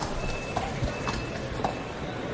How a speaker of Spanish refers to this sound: Eh, van a salir los caballos de pica. Ya están en el ruedo los picadores.